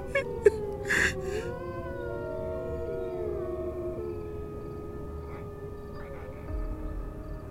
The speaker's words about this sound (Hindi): गांव वालों का कहना था कि उस जंगल से भेड़ियों की आवाजें आ रही थी